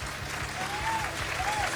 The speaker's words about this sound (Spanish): Así que el público que aplauda de nuevo. ¿eh? Gracias, gracias. Ya que estrenamos aplausos.